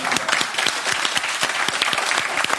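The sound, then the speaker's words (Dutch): Steady applause from a group, dense overlapping claps forming a continuous crackling wash with no voices, holding at an even, fairly loud level throughout. “Maar er wordt voor geklapt. Ja, applaus.”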